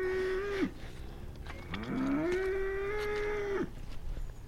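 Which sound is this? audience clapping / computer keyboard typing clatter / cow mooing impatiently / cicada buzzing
cow mooing impatiently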